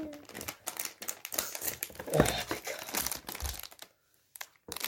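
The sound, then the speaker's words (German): Busy crinkling and rustling of plastic packaging as a wired keyboard is unboxed, with irregular crackles and crunches for several seconds, then a brief pause before a little more rustling resumes. “Jetzt können wir es öffnen. Und hier ist sie.”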